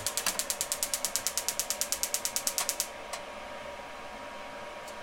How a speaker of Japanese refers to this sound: えーと、とガスコンロのねグリルを使って今火をつけました餅を3個焼くよ